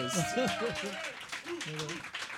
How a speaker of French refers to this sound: C'est quoi qui te fait le plus peur? Genre overall, de quoi t'as peur? De rien. Correct. Ouais, applaudissez ça.